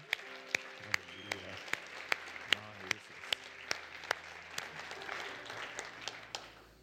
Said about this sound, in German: Komm, lass uns Jesus nochmal einen Applaus geben.